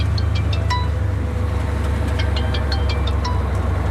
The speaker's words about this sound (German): Und wir haben es gehört, am Ende vom Beitrag, da kommt schon das nächste Telefon rein, wo der Schneepflug wieder in ein anderes Quartier bestellt, zum dort zu räumen.